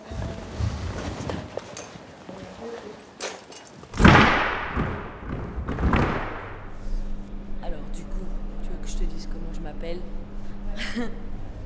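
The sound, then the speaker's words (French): A door is pulled open with a couple of heavy thuds, the first loud and booming, the second softer, followed by a low steady hum and faint background voices. “Mais vas-y, la porte ouverte, du coup.”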